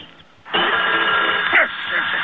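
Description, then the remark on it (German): A telephone hanging on an old oak tree rings loudly and continuously, starting after a brief quiet moment and buzzing on without a break, with a thin, old-recording tone. “Drüben an der alten Eiche hängt ein Telefon.”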